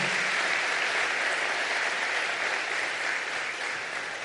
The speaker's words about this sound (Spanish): Y yo quiero que usted por favor le dé un aplauso, no solamente a mi mamá, sino a todas las mamás que han sido mamás y papás en algún momento.